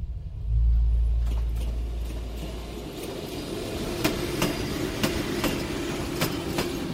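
A train of cattle wagons rumbles heavily at first, then rolls more slowly, its wheels clacking in a steady, spaced rhythm over rail joints as it eases in to the platform of the Birkenau-Auschwitz death camp in Poland, fairly loud with no voices.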